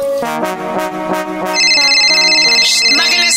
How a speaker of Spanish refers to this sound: Está sonando el teléfono.